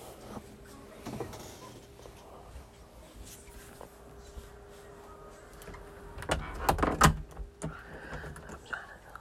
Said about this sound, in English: I'm about to lock my door.